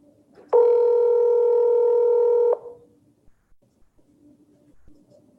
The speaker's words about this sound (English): So here goes the phone call.